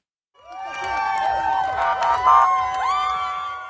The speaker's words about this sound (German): Es sind Momente der Freude, als in der Nacht der Konvoi mit den Geiseln die Straßen in Israel passiert. Begeistert jubeln die Menschen am Straßenrand, israelische Fahnen schwingend den Fahrzeugen zu.